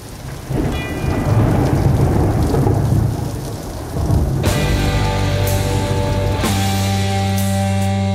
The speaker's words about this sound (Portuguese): Já começa com toda a, a criação desse clima, com essa, esses sons de chuva e trovoadas.